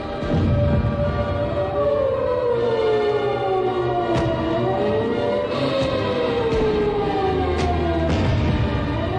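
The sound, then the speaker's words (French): Howling sirens wail continuously, their overlapping tones slowly rising and falling over a low rumbling background, loud and sustained throughout with a few sharp clicks breaking through. “Euh, c'était les, hurlements des sirènes, pendant si longtemps avait annoncé euh, le danger.”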